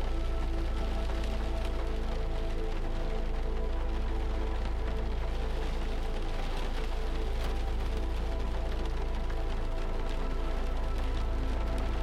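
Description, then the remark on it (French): Steady rain falls and trickles without pause, a dense continuous wash with a low rumbling undertone, heard from inside a house, with no voices. “Les murs de la maison vous protègent de la pluie qui continue à tomber et à ruisseler.”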